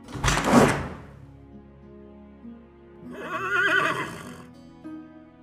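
Heavy castle doors creak open on rusty hinges: a loud opening thud, then after a pause a long, wavering, high-pitched squeal that fades, with no talking.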